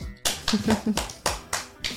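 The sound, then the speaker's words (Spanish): A handful of sharp hand claps land in a steady rhythm, like a small group applauding to welcome a guest on a third-anniversary program, with a faint voice murmuring briefly between the first few claps. “Un aplauso.”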